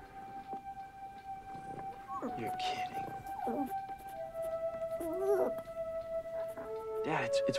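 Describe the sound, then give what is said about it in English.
A dog named Barney lets out several short, wavering howls and yips, spaced a second or two apart, over a steady humming background tone. “be a good dog.”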